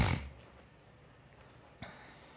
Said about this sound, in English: Hmm. Um, the, the, the pot is doing a weird noise.